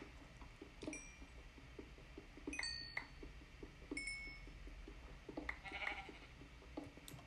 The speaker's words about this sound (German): Hier ist ein Schaf in der Höhle, okay.